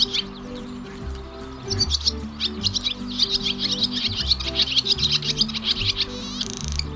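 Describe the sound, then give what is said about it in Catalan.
Barn swallows twitter in a rapid, continuous stream of high chirps and warbles over a low, steady droning hum, the busy chatter growing livelier after the first couple of seconds. “Me sembla que són les nostres amigues les donetes comunes.”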